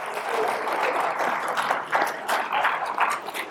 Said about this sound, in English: Again with the applause. Now they're just mocking you.